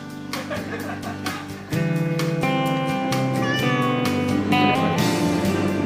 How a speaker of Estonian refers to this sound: tunnen, et kui ma siin Jeruusalemmas ringi käin, siis igal kohal on oma kass. ja palun, leidsin ka ülemise toa katusekassi vähemalt, kes siin tuvidega suhteliselt rahulikult koos eksisteerib. hallo, tere kass